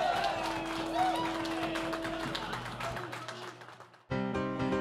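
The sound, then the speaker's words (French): A crowd cheers with joy and applauds King Arthur steadily for about four seconds, a dense wash of clapping with a sustained tone beneath, before it cuts off and music begins. “Des cris de joie s'élèvent de la foule qui applaudit.”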